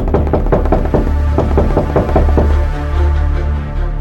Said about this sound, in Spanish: Así es que regresó a casa de las cabritas y volvió a tocar la puerta.